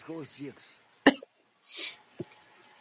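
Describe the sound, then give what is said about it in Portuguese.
A single sharp sneeze bursts out after a few breathy voiced gasps, followed by a hissing exhale and a short sniff, with nobody talking. “saúde para você”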